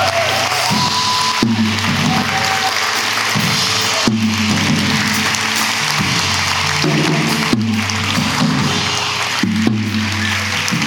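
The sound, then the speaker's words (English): A church audience claps steadily in celebration during a service, creating a dense, continuous wash of applause while low, sustained musical notes shift underneath it for roughly eleven seconds. “Let's clap, church. Let's celebrate, celebrate, celebrate, celebrate.”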